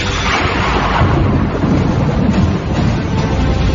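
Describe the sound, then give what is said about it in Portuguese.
A heavy storm roars steadily, with deep rumbling thunder rolling beneath a constant wash of rain and wind, loud throughout with no voices. “Todos entram em desespero total diante da tempestade, diante dos trovões, diante dos relâmpagos e raios.”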